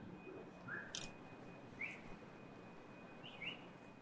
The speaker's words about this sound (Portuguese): assobia do outro lado da rua, avisando que viu algo.